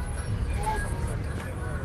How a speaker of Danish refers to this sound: Og det var altså direkte fra en øh, bus på vej til Yaoundé, hovedstaden i, øh, i Kamerun. Og når, når passagererne der klager over, at buschaufføren kører for stærkt, som sagt, så tror jeg godt, jeg kan love, at han kører for stærkt.